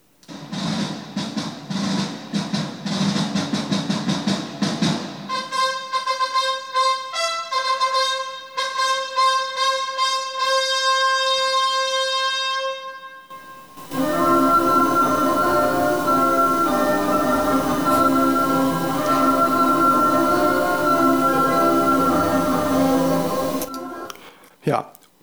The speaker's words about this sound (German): Melzel hat zu Beethoven gesagt, du mach doch da mal eine Musik dazu, ich baue einen Automaten. Dann hat Melzel einen Automaten gebaut, dessen Musik ungefähr so klingt.